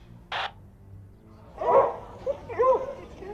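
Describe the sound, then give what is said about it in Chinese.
A police dog barks in a loose, irregular series of sharp, mid-pitched barks and yips over a low background murmur, preceded by a brief noisy burst. “嘿，警犬都上了，那土锤肯定在里面。”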